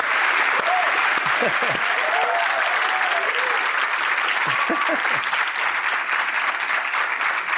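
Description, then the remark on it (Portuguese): Steady, dense applause from a crowd fills the whole stretch, loud and continuous, with a man's voice talking and laughing briefly over the clapping. “Vocês estão aplaudindo amendoim.”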